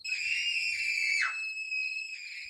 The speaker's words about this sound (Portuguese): O silêncio dos primeiros segundos se foi com os gritos das crianças. O medo delas do escuro gritava mais alto.